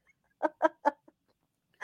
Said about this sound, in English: She beat me over the head with a rubber chicken. with the rubber chicken. I don't know about A that. that the squeaking sound I heard?